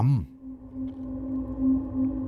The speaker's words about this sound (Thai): เราคอยสักครู่ เสียงหมาหอนก็แว่วมา